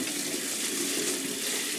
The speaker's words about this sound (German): Ich lasse jetzt einfach das Wasser ein bisschen über den Reis rinnen und du mit den, mit den Fingern ein bisschen drin rumrühren, damit das ein bisschen Stärke rauskriegt.